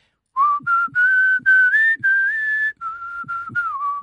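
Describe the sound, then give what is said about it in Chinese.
A man whistles a melodic tune in a living room while holding his baby daughter: steady sustained notes that glide gently up and down in pitch, in several phrases with brief breaths between them, clear and fairly loud with no talking. “他们都说你吹口哨吹的特别好听，你给我们吹一个吧。”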